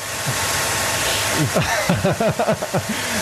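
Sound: hair dryer running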